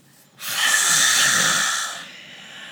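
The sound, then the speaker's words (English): A single forceful, breathy exhale lasting about a second and a half, done as the yoga lion's breath (simha), a broad rasping hiss of air pushed out through the open mouth, like a loud sigh with a throaty edge. “So which which weights do you think in our yoga practice we can keep this chakra happy? Lion's breath.”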